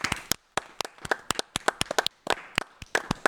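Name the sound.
clapping applause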